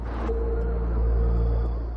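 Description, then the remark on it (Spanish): The car of Jesse's parents returns home at dusk, its engine humming with a deep, steady rumble and a faint tonal whine, swelling slightly midway as the car arrives. No one speaks. “El coche de los padres de Jesse vuelve a casa.”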